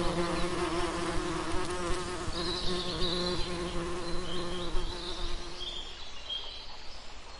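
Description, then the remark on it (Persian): A steady drone of bees buzzing continuously, a layered hum with faint higher chirps drifting in the background, easing slightly toward the end. “صدای زنبورهایی که روی های وحشی میشینند”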